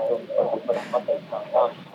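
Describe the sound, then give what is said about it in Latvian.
A radio plays in the background, its thin, tinny sound carrying indistinct voice-like bursts in an uneven rhythm at a moderate, steady level. “Jā, varbūt varat izslēgt radioaparātu, lai tā atbalsts mums netraucē runāt.”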